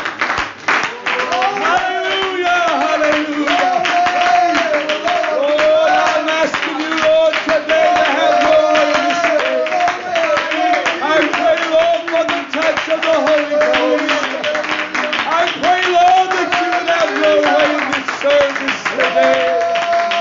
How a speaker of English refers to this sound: Before you're seated, I want us to clap our hands unto the Lord. And I want us to worship Him with all of our hearts today.